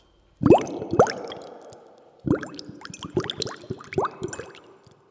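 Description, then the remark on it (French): A voice imitates Artus blowing bubbles, making a series of wet, plopping mouth pops in two bursts, fairly loud, with bubbly gurgles between the pops. “Au lieu de répondre, … imite Artus qui fait des bulles.”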